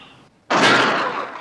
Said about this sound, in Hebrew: כמו ששמענו, uh, יש פליטת כדור.